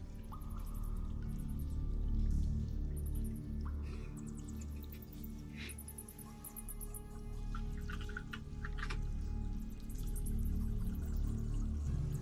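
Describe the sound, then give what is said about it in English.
Water flows steadily in the distance inside a tight cavern, a soft, continuous rushing with scattered drips and trickles. No one speaks. “As you see this tight cavern begin to move towards the top, and you can hear the sound of flowing water off into the distance.”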